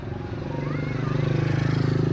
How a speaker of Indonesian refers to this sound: ada motor lewat.